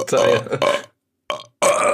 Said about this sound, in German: also ich kriege einen Rülpser hin.